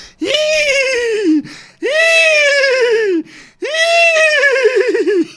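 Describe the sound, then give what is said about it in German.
Someone imitates a horse neighing three times in a row, each call a long, loud, high whinny that wavers and quivers before dropping off, with brief pauses between. “Das war gerade ein Pferd das mag.”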